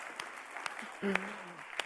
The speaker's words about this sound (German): mal einen Applaus geben für seine Predigt, äh, Moderation, Entschuldigung. Yeah!